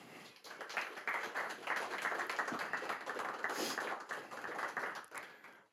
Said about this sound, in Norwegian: Og eh, gi en varm applaus til